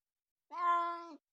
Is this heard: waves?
no